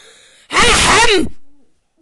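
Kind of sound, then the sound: human body sound, loud throat clearing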